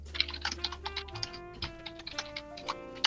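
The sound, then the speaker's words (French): Fast, heavy typing on a computer keyboard, with a rapid stream of sharp clacking keystrokes over a steady low background hum. “Celui qui massacre son, clavier son clavier encore, ce serait cool.”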